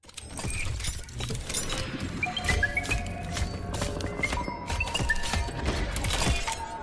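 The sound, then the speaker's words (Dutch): Heavy mechanical robot footsteps from a video game trailer clank along steadily with metallic thuds and hits, layered over sustained electronic tones and a dense cinematic rumble, loud throughout, with no talking. “dat was het geluid van de robot uit de trailer van de nieuwe Metroid game Dread”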